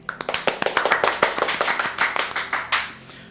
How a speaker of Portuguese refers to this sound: E a que está aqui hoje, salva de palmas.